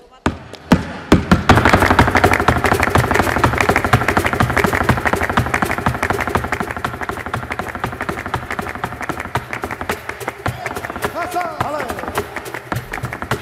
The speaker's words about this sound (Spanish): ahí en nada el zapateo de …